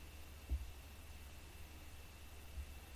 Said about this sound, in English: A steady hum rises from the plinth, and for a fleeting moment, the ghostly image of a pair of boots forms above the plinth.